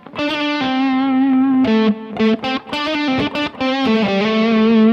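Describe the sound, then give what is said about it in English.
Distorted electric guitar playing a short riff with sliding notes in the third position, sustained buzzy tones broken by quick choppy stabs, loud and continuous with a bright, gritty edge and no voices. “Little slides and things like that that I can do with this position that I couldn't when I was sitting here.”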